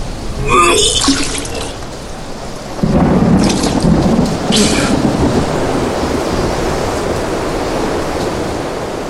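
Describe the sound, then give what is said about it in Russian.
A thunderstorm at sea with steady heavy rain and a deep rumbling roll of thunder that swells and lingers, all loud, with no voices present. “Не как шторм начинается.”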